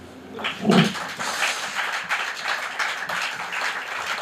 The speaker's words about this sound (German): Das ist euer Applaus.